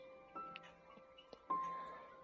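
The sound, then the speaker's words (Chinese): A clock ticking, a few sharp, moderately loud clicks at uneven intervals over a steady tonal hum, with one stronger strike that rings on as a bright sustained tone as the clock strikes half past eleven. “六一很快到了，钟表敲过十一点半，老局长出发了。”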